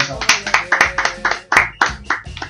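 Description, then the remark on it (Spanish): A short burst of applause in tribute to Negro Fontana Rosa: steady, evenly spaced hand claps from a small group, loud, with voices murmuring underneath. “Un aplauso para Fontana”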